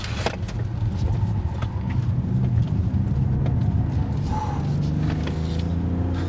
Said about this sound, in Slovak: Ten diesel je taký, že nemá úplne naj, najlepšiu odozvu na plyn hneď, ale...